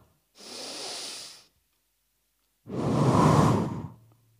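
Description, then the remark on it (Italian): Two breathy gusts of rushing wind, a softer one lasting about a second, then after a pause a longer, fuller and louder rush. No one speaks. “Arriva come vento, come se noi sentissimo il respiro di Dio qua dentro, ora.”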